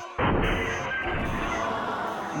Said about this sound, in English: Mayday, mayday. Sell, sell now. Sell, sell, sell, sell, sell. Oh no, it looks like it's crashing.